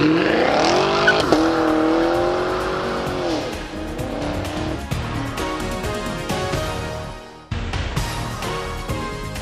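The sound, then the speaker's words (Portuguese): A car engine revs loudly and climbs in pitch with a squeal of tires as it shifts into first gear, then settles and keeps running as the vehicle pulls away, with a brief dip before the engine noise returns. “engata primeiro e vambora!”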